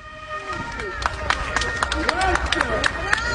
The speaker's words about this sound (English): Bravissimi, bravi, bravi there was a lot of cheering going on from passers by. And I think that was really appreciated by the police officers